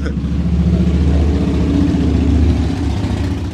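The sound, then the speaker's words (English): Loud, rumbling motorcycle engines roar, a continuous low growl that swells slightly midway as they pass, with no talking. “pausing for motorcycles.”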